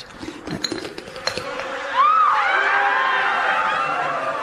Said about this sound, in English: And so he reaches down and picks up his very large jar and unscrews the lid.